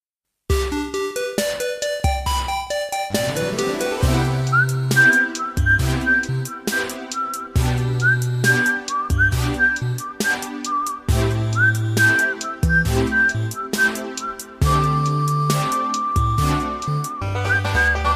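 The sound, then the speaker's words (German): A whistled video game theme melody, the game's single recurring theme, plays over a steady instrumental backing with bass and percussion, the bright tune carrying clearly and loudly on top throughout, with no talking. “Mal wird's gepfiffen, mal ist es eine Art äh, Shanty und irgendwann kriegt man es nicht mehr aus dem Schädel.”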